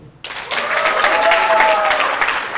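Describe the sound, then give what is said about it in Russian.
After a brief quiet moment, a crowd bursts into loud, dense applause that stays steady for a couple of seconds, with a faint tonal whine running underneath the clapping. “Это аплодисменты.”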